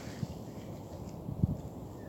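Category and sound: bird, pigeon wings flapping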